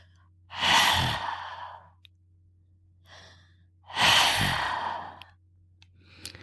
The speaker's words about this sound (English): Imagine you are fogging up a pair of glasses. You should hear a soft hissing sound like that.